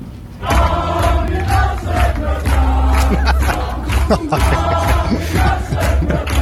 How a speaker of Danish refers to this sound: Men nu, venner, har Armin Laschet fået sin egen version, som jeg i hvert fald ikke kan få ud af hovedet. Prøv lige at, prøv lige at høre her, hvordan man tiljubler øh, CDU's spidskandidat.